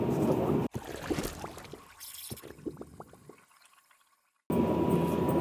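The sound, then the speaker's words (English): A brewed drink pours steadily from a Rico flask into a paper cup, a gurgling stream with small splashes that thins to drips and stops, followed by a burst of background noise. “Um, so I'll whap you on pause while I pour it into a cup and I'll be back with you in just a minute.”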